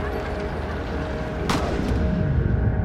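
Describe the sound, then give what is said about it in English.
A single sharp rifle shot cracks out about halfway through, cutting above a loud, continuous rumble of engine and crowd noise that carries on before and after it. The shot is fired in downtown Dallas at an open-top limousine carrying the President and First Lady, and misses its target. “She doesn't know it yet, but that was a gunshot.”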